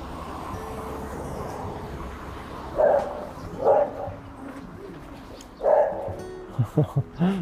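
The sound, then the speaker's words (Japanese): Several dogs bark in loud, separated bursts over steady outdoor background noise, ending with a quick run of short yips. “ワンちゃんのね、いろいろいてっていう感じですね。”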